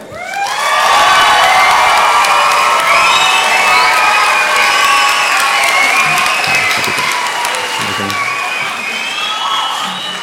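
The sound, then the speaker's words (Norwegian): A crowd bursts into loud, sustained applause mixed with cheering and high-pitched whoops and shouts, welcoming a guest who is a KrFU county leader, staying steady and dense for about ten seconds with no speech over it. “Kanskje dere tar godt imot Rakel Oline Moi?”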